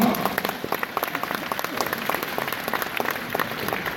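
An audience bursts into steady applause, many hands clapping in a dense, even patter that holds at a constant level for several seconds with no voices standing out.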